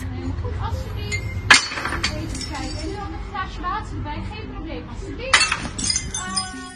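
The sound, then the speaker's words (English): Glasses and dishes, thrown by waiters toward tables from two meters away, crash and shatter in two loud bursts, each trailed by a scatter of bright tinkling shards, over a steady murmur of background voices. “funny videos of waiters practicing the new skill they will need for their after corona performance basically is throwing drinks and dishes to the tables from two meters away to respect the safe distance.”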